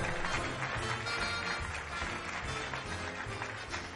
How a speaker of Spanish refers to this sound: Un fuerte aplauso.